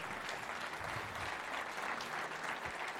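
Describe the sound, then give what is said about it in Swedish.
Sustained audience applause giving Jesus a big hand: a dense, steady wash of many hands clapping at once, fairly loud and continuous throughout, with no voices standing out. “Ja, vi kan ge Jesus en stor applåd.”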